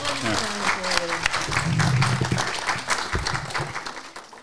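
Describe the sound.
An audience at an evening event applauds a speaker coming to the microphone, a dense wash of hand claps for a few seconds with voices talking over the start and murmuring through it.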